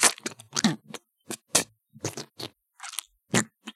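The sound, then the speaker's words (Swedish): Wet, squelching chewing noises from behind a closed door, a series of irregular smacking bursts with brief pauses between them, fairly clear, with no talking. “Det klafsar fortfarande där inne.”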